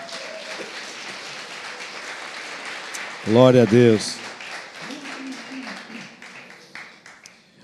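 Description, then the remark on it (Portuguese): A church audience claps for Jesus, a steady, dense, even crackle of many hands filling the whole stretch, while a loud voice briefly calls out over it midway and quieter voices murmur underneath. “Vamos dar uma salva de palmas para Jesus, gente?”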